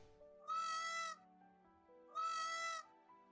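A peacock gives two loud, piercing, nasal calls to its peahen, each lasting just over half a second and spaced about a second apart, over a faint steady drone in the background.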